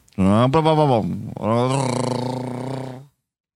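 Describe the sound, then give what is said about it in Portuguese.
A voice mimics the noise of a metalworking shop's chainsaw cutting metal with a loud, buzzy drone. A short burst, a brief pause, then a longer, steadier whine, with no other sounds. “É motosserra, não sei se é a mesma motosserra.”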